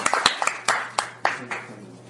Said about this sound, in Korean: 박수로 한번 모셔볼까요?